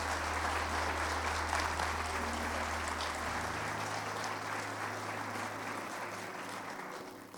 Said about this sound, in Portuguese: Então aplauda o Senhor.